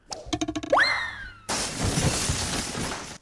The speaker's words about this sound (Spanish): hace un tiro muy largo, pero luego los cristales suenan. Era muy cerca.